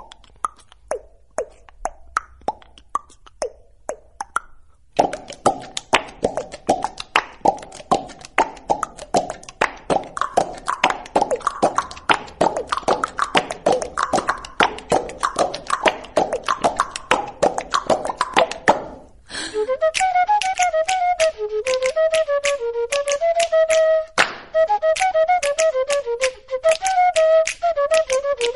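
A recorded baião song played by a band: steady, driving percussion strikes build up quickly, then a bright, sustained melodic lead line joins in over the rhythm. No one sings or talks.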